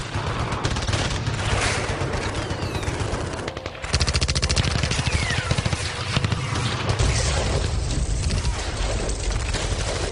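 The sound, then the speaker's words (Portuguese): Sustained bursts of loud, rapid machine gun fire, dense and continuous for about ten seconds, with a brief dip in the middle before the rattling barrage resumes at full intensity. “Ah, ah, eu queria dizer uma metralhadora.”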